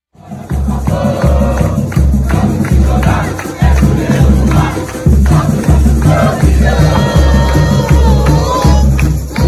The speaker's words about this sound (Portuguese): Santos 4, Vasco 1. Fique com o nosso videozinho da festa da torcida